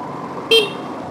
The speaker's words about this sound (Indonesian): Oke, kita jalan. Semoga suara audio motornya nggak dominan ya. Dengan suara ngoceh gue.